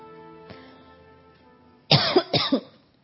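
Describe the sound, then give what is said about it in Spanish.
Two loud, harsh coughs in quick succession from a person who has just choked, each a broad burst with a ragged double pulse, coming after a second or so of quiet low hum with a faint click. “Permiso, perdón. Me atoré.”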